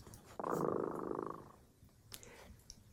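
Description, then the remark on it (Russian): A cat, Dremota, purrs steadily for about a second, a soft rumbling drone, followed by a few faint rustles and light clicks. “Слышите, кот Дремота запел свою песенку – это значит, что пора засыпать.”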